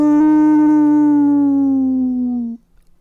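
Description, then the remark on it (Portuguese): A person's voice imitates a wolf howl: one long, loud, sustained tone that slowly slides downward in pitch for about two and a half seconds, then cuts off abruptly into near silence. “Ao ouvir aqueles uivos, o produtor chamou o lobo ao seu gabinete.”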